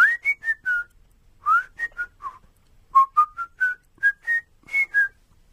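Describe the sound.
A man whistles a bouncy, catchy melody, clear short notes grouped into quick phrases with brief pauses between them, with no talking.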